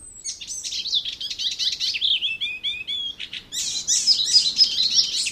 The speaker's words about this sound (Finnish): Ja siinä olisi koiran niin. lelu. pii, pii, pii. Ja semmoinen kakatsi, kakatsi, mitä se päästelee aina sen lurituksen lomassa. Tämä kultarinta laulaa aika samankaltaisesti kuin luhtakerttunen